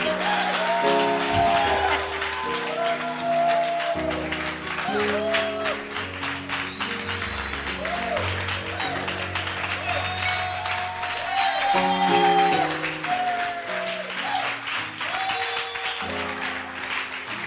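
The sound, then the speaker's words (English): A church audience claps steadily and continuously for Jesus, the rapid hand claps blending into a dense patter under loud keyboard chords and music that play throughout. “Keep clapping your hands for Jesus.”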